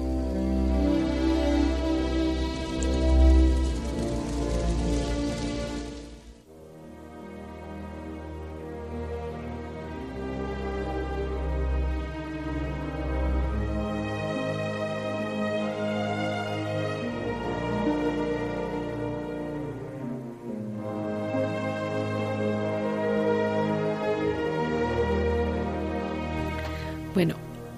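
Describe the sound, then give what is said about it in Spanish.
A sweeping orchestral passage from the film score of Dances with Wolves plays on its own, with sustained strings over deep, resonant low notes, swelling and easing in waves at a steady, full volume. “Estamos escuchando una pieza de la banda sonora de, Bailando con Lobos”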